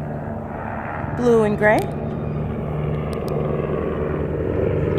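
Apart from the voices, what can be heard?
helicopter flying overhead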